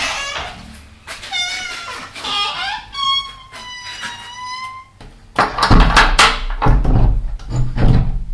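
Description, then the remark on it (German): A door creaks in a series of long, wavering squeals, followed by loud, rattling metallic clatter and thuds as it swings shut inside a corrugated-iron toilet hut at a campsite. “Hier zeige ich euch gerade mal, wie es in der Toilette so klingt.”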